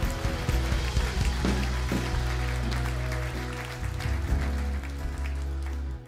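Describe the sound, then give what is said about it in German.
A church audience applauds to give God a big round of applause, a dense, steady wash of clapping that stays loud for about six seconds, with sustained low musical tones humming underneath. “Come on, come on, lass uns Gott einen riesen Applaus geben.”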